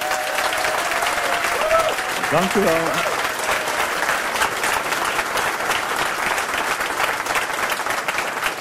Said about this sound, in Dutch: En wel live vanuit de Spiegeltent op de Boekenbeurs met een man van 60 jaar. Dames en heren, geef hem een warm applaus. Herman Brusselmans.